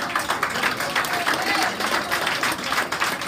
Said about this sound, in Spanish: Fuerte el aplauso, Más